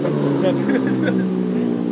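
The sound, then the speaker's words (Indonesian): A motorcycle engine revs with a steady, loud droning hum that holds for the full two seconds, with a muffled voice faintly underneath. “lagi bangsat kue motor bangsat motor”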